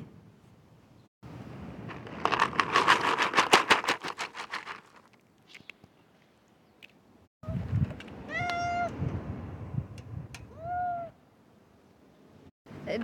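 Cat food is rustled in its packaging in a rapid, dry patter, then a cat meows several times with rising, tonal calls amid more rustling and shuffling.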